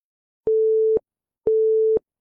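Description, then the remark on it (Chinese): A phone busy tone after a call is hung up sounds twice: two steady mid-pitched beeps, each about half a second long, separated by a half-second of silence, with no voices present. “这样的一道声音说完后，直接是挂断了电话。”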